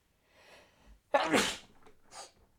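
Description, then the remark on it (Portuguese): A single loud sneeze bursts out after a short sharp inhale, followed by a couple of softer breathy sounds as it trails off. “E agora espirro no podcast assim.”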